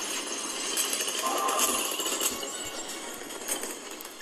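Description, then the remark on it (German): A toilet flush sound effect from a unit's ability in a video game plays as a steady, hissing rush of water lasting several seconds, fairly loud and continuous, with faint clinking and mechanical noise mixed in. “Ich könnte jetzt theoretisch beim Techno-Terror die, Ex die Klospülung machen.”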